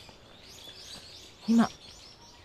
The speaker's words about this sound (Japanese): バックの鳥の声聞こえますでしょうか私は声を小さくしていますが